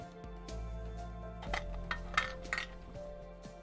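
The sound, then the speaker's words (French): Several light clinks of glass, irregularly spaced, over a steady low hum with no one talking. “Qu'est-ce qu'il y a dans ce verre Pourquoi il fait ce bruit”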